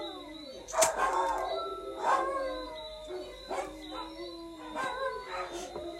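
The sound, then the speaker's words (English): Several dogs howl together in long, wavering, overlapping wails, with a few sharper yips breaking in; the chorus rises and falls repeatedly, fairly loud, with no talking. “oh, the dogs, you can't.”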